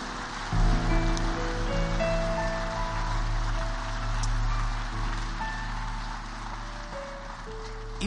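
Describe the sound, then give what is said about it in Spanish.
An audience breaks into applause that swells after a brief moment and continues steadily for several seconds as a dense, even wash of clapping, with a low sustained hum underneath. “Y vamos a darles un aplauso.”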